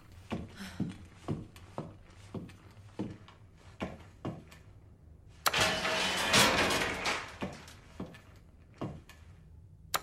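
The motor of the elevator Claire reached, the one Leon had earlier ridden to the stairwell, hums steadily under a regular series of mechanical clunks, then surges into a loud, harsh grinding whir for a couple of seconds before the rhythmic clanking resumes.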